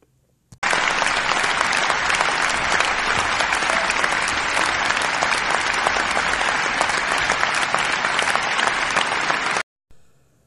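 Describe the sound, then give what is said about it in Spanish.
A steady burst of applause from many hands, dense and loud, runs for about nine seconds and then stops abruptly. No one speaks over it. “de nuevo un aplauso para ellos, se merecen un gran reconocimiento”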